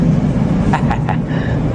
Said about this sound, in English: This is reality of a peaceful train ride in Moscow. I came across this. Remember when train rides were like this? Normal, calm.